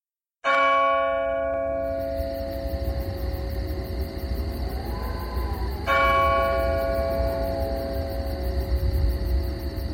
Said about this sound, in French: une à une, ces interruptions s'éteignirent, et un calme absolu s'installa, coupé seulement par l'horloge de l'église qui nous renseignait sur l'avance de la nuit, et par le murmure et les froissements d'une petite pluie fine tombant sur le feuillage.